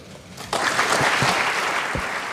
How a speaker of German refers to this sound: Unter großem Applaus steht der gesamte Landtag auf, fraktionsübergreifend, auch aus den Reihen der AfD und der Linkspartei. Nur vereinzelt bleiben Abgeordnete sitzen.